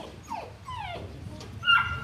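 A St. Bernard dog whimpers in a series of high, sliding whines, several short cries, ending in a slightly louder yelp over low background rumble.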